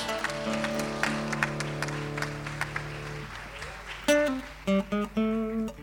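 Audience applause with scattered sharp claps for about three seconds, over a steady held musical tone. Short tonal bursts follow after the clapping fades.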